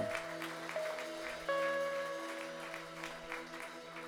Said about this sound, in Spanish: Denle un fuerte aplauso, Señor.